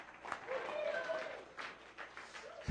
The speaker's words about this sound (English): That's the real St. Nicholas. A hand clap for St. Nick.